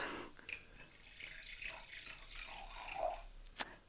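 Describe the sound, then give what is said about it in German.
Evian still water pouring steadily into a glass for a few seconds, a soft, gurgling trickle that shifts in tone as it fills, ending with a sharp little clink. No one speaks. “Also, ich schenke mal ein.”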